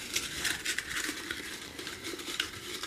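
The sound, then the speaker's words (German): A hand rummages through paper slips inside a glass jar to draw a slip with a new topic. It gives a steady crinkly rustle with faint clinks against the glass, a continuous busy shuffling with no speech. “Und ich greife jetzt inst instant ins Glas.”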